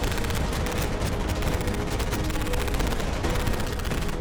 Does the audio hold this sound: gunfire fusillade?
yes